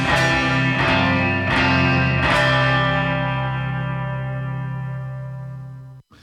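A 1960s pop song recording reaches its ending: a few loud strummed chords, then a final full-band chord rings out and slowly fades before cutting off. No voices.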